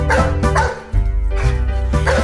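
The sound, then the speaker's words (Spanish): Dogs bark in a quick series of four sharp, fairly loud yaps spaced roughly half a second apart, over a steady low droning background. “Los hombres hacían sufrir mucho a los perros los perros decidieron quejarse con Tlalo”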